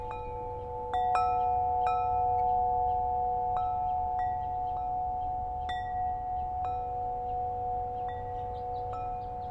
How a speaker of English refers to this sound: And right in front of me in the northeast right now are these beautiful wind chimes.